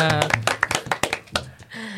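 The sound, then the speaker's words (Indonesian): Hand clapping in a quick, uneven burst of sharp claps lasting a couple of seconds, mixed with people talking and cheering over it, as the audience applauds special guests from BEM FH UNER on Kastra Dialog. “Nah, tepuk tangan semuanya.”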